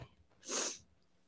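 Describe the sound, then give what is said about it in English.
A single short, breathy sniff, a quick hissy intake of air lasting about a third of a second, moderately loud against an otherwise quiet background with no talking. “The sniff told it all.”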